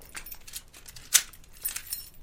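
A set of car keys jingles as it's handed over together with a gun at a hotel, a brief flurry of light, bright metallic clinks with one sharper jangle in the middle. No one speaks.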